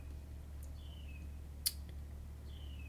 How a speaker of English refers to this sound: I can hear the birds.